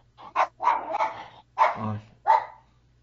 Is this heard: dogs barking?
yes